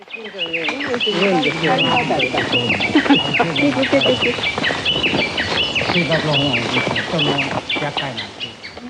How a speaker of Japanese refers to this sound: お分かりでしょうか実は、ウグイスなんですよね。